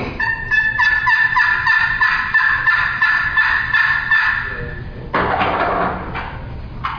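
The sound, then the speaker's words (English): A rapid series of raspy, high-pitched, loud turkey yelps made on a wooden game call, followed by a brief scratchy friction sound near the end. “the basic yell is something turkeys do every day of their life.”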